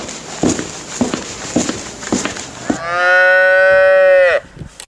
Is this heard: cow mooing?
yes